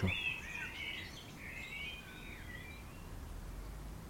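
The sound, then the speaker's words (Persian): Birds chirp and twitter for the first couple of seconds, high-pitched, moving from branch to branch in tall old trees around a grave in a cemetery, over a steady low outdoor rumble that continues after the calls fade. “در خلال اون لحظات هیچ صدایی جز جیک جیک پرنده هایی که روی درختای بلند و قدیمی اطراف قبر این شاخ و اون شاخه می شنیده”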